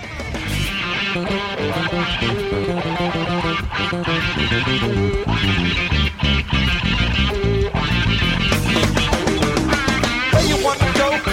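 A live rock song plays loud and continuous, with dense guitars, driving drums and a sustained vocal line filling the full range, and no speech over it.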